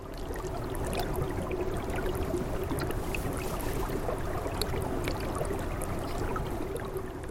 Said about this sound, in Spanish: Cuando se acerca a un manantial que emana del valle, se oye el cristalino sonido del agua que corre por debajo del hielo.